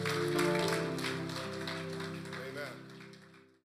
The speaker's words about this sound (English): Put your hands together for the Lord.